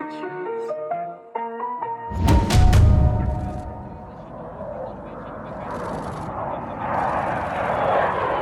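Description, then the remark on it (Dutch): A short melodic jingle gives way to a sudden loud blast, then the steady, broad roar of fighter jet engines rumbling and swelling: five Netherlands-supplied F-16 jets at Borcea air base in Romania, flown by Ukrainian pilots getting used to the aircraft. “Ja, je hoort hier het geluid van vijf door Nederland geleverde F-16 straaljagers op de Borcea luchtmachtbasis in eh, Roemenië.”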